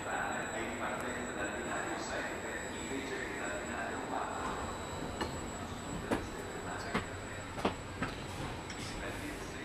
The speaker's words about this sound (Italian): Nel treno intanto mi sono sistemato e ho fatto conoscenza con un compagno di cuccetta.